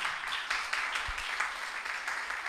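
An audience at a Spanish-language church service applauding Christ, many hands clapping in a steady, rhythmic beat that forms a soft, continuous wash of crackling noise, with no voices rising above it.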